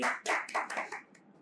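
A short burst of people clapping, five or six sharp, crisp claps in quick succession that soften toward the end, with no talking.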